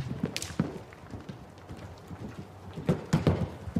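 Horse hooves clip-clop, a handful of sharp knocks falling in loose irregular clusters, with a quiet lull in the middle before the steps pick up again.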